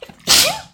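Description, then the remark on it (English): A single sharp sneeze bursts out, a quick intake followed by a loud, breathy explosive burst that fades within half a second. “bless you. Excuse me.”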